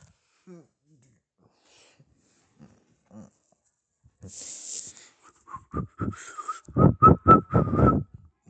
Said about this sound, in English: See, I'm, I'm whistling to find the tickets. The tickets are like birdies. They will do anything. They do anything for a whistle.